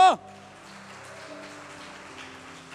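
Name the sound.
audience applauding loudly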